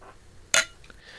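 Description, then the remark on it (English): A single bright clink of glasses of champagne from France touching at North Georgia Business Radio X, sharp and short, followed by a faint high ringing that fades quickly. No one speaks. “All right, ladies and gentlemen, that sound you heard was the clinking of champagne glasses.”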